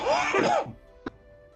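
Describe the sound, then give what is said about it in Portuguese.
One loud, explosive sneeze with a breathy, voiced rush lasting about half a second, then quiet apart from a faint brief tap. No one speaks. “Saúde.”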